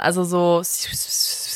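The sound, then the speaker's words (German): A voice speaks briefly, then breaks into a breathy hissing that imitates the whispering and babbling of creatures, a continuous airy murmur lasting about a second. “Allerdings glaube ich aber auch, dass diese Geräusche die, so, ein, so ein Flüstern darstellen sollen.”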